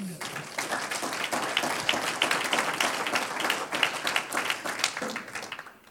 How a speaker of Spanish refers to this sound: Aleluya, un aplauso al Señor.